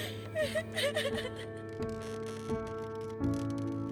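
An eight-year-old girl whimpers and sobs in short, wavering bursts over a steady low musical background, with the crying trailing off into quieter sniffles.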